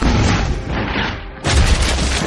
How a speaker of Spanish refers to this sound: Era una bala de cañón, pero era amarilla. Al rato, una nueva bala voló por los aires, dando de lleno con las puertas de la torre del loco que estaba en nuestra retaguardia.